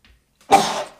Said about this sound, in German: oh, oh, ich muss niesen.